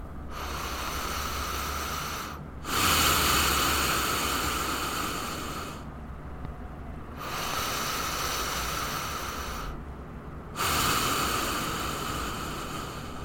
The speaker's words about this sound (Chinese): 但是我们如果是专注在鼻子上，跟专注在喉咙上，是会有一点不一样的哦。那我现在做一个一般专注在鼻吸鼻吐的呼吸的声音，会是这样。